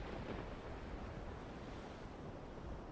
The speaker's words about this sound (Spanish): Escucharéis este sonido y os recordará el mar y os leo un pequeño texto para poneros en arena.